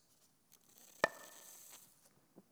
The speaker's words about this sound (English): Sorry, that's super loud, but I have to take big gulps.